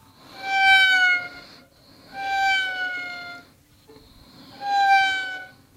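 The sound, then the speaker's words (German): A violin imitates a very small kitten's meow three times, each a high, sliding, whiny tone with rich harmonics, played clear with short pauses between, no talking. “Also ich stelle es mir ein ganz kleines Kätzchen dabei vor.”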